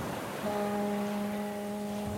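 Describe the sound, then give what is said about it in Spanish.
A deep, steady ship's horn sounds once as a ship arrives at a seaport on the island of Cyprus, holding a single long blast for nearly two seconds over a constant rush of high ocean waves after a storm. No one speaks. “acaba de llegar una nave con Casio, el teniente del valiente Otelo”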